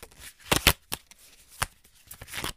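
A tarot deck whose art style resembles the background illustrations of old Disney movies being shuffled: a few crisp, papery riffles and snaps in irregular bursts, a loud double flurry near the start, then scattered softer ones. No one speaks.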